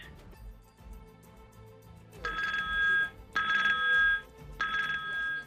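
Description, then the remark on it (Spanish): Telephones ring at the EITB Marato donation call centre, where volunteers take donation calls, in three repeated bursts of bright, high electronic trilling, each lasting about a second, over a low background murmur. “Es el sonido que tiene la cara más solidaria de nuestro país.”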